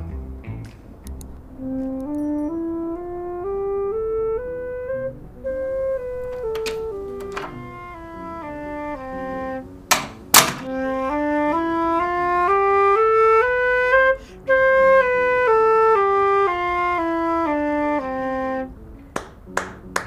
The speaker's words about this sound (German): Durch die Tür vom Musikzimmer hört das Flötenspiel vom Pan und steuert direkt darauf zu.